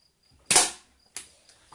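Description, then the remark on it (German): A Coca-Cola aluminium soda can being crushed: one loud, sharp crunch, then a second crackle and two softer crinkles, with no voices. “Ich habe meine Coca-Cola-Dose, Leute, schon so krass beschädigt.”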